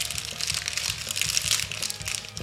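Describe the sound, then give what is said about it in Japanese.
Crinkly wrapper of honey rice crackers (okaki senbei) rustling and crackling as they are unwrapped and eaten, with sharp crunching bursts, a steady dense texture of crisp snaps and rattles lasting throughout, moderately loud with no talking. “蜂蜜おかきせんべい来ましたやった食べていいですかもうねこの番組ゆるくやってますからどんどんねこういう 食べちゃいますよいただきます”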